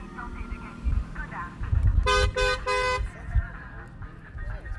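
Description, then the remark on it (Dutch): A Skoda car in a publicity caravan blares its horn three times in quick succession, loud, rising above a busy crowd murmur and low traffic rumble, with voices chattering throughout. “Skoda-auto, de rixal auto ik wil geen reclame maken. Continental.”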